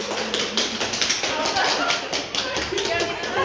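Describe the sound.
In İzmir, Turkey, a group claps steadily and fairly loudly for several seconds to welcome a doctor back to work after beating coronavirus and finishing quarantine. The dense patter of many hands is mixed with cheerful voices and chatter underneath.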